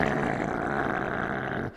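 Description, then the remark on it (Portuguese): A person imitates a dog growling at its own wagging tail: a steady, rough, throaty rumble held for almost two seconds, fairly loud, then cutting off abruptly. “E ele estava com o rabo dele, ele balançando o rabo, e ele estava lá rosnando para o próprio rabo, ele virava a cabeça para o rabo e fazia.”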